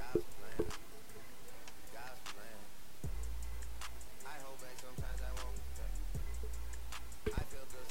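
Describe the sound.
A mother talks loudly about the dog in another room, her voice muffled, with sharp ticking clicks scattered throughout and a low hum in places.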